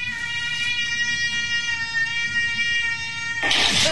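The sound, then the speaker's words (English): A young cat, about four years old and six or seven pounds, looking for food, lets out one long, drawn-out meow that holds a steady, insistent pitch for several seconds, fairly loud, then breaks off into a short burst of rustling noise. “here she goes looking for food. Meow.”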